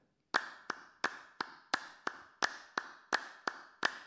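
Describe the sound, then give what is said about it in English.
Metal castanets (krakab), as played in gnawa music, clack sharply over a steady hand-clap beat at 172 BPM, about three hits per second with alternating stronger and softer accents, each hit carrying a bright metallic ring. No voices. “Let's call them krakab for now these are metal castanets that are played percussively on gnawa music to create some trance situation. We're doing it to a hand clap on 172 BPM.”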